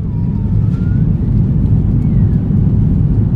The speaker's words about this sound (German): Das Flugzeug rollt an, wir heben ab, wir steigen auf, wir tauchen tief in die dichte Wolkendecke am Himmel über München.